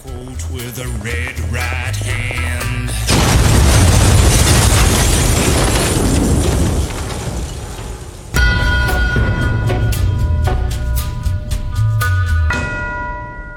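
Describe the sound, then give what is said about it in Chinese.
A loud bomb blast, set off early in the morning at a pub by two women in black who came pushing a baby pram, bursts in over low music and rolls into a long, roaring rumble of debris for several seconds before ringing, bell-like tones and music take over. “这天一大早，两个黑衣女人推着婴儿车来到他们的酒吧，趁四下无人，引爆的炸弹。”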